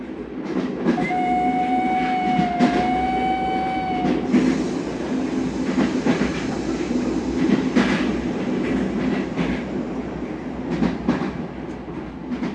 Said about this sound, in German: Dann setzte sich der Zug in Bewegung, und schon bald war von der großen Stadt nichts mehr zu sehen.